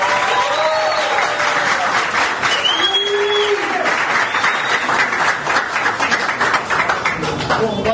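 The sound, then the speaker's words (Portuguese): Sustained, steady applause from a crowd for the new co-mayor Priscila Yamagami Guerra fills the whole stretch, dense and loud, with a few faint whistles or cheers rising above the clapping. “É uma salva de palmas para você!”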